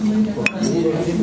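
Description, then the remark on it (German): Glasses clink together once during a toast in a bright, short chime with a brief ringing tail, set against steady background chatter of people talking. “Prost. Tschüss.”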